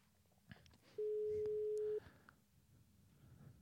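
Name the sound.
telephone ringing tone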